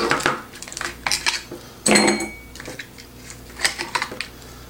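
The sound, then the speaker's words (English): Large ice cubes, shaken out of a sturdy ice cube tray, clink and rattle into a glass in a series of sharp, bright knocks, with one louder clatter partway through and no one talking. “Pop them in the glass.”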